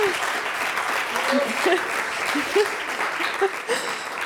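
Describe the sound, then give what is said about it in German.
Steady audience applause fills the space, a dense wash of many hands clapping at an even level, with a few scattered voices calling out over it. “Das Applaus.”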